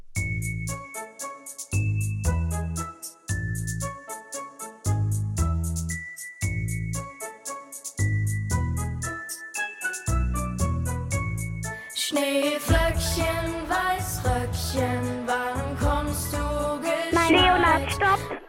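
An instrumental rendition of the German children's winter song "Schneeflöckchen, Weißröckchen", played as a song to guess in a quiz: a chiming, bell-like melody in short phrases over bass, swelling into a fuller arrangement for the final third, with no singing.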